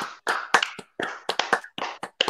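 A brief burst of hand clapping, a handful of sharp, bright claps landing in an uneven rhythm, fairly loud, with no voices, applauding the end of the quarantine.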